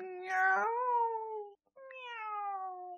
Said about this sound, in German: Du kommst auch mit. Miau.